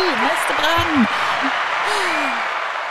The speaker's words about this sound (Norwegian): Nå har vi til og med fått lagt egen applaus inn her